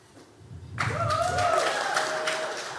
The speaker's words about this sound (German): Mutter klatscht. Das finde ich tapfer von ihm,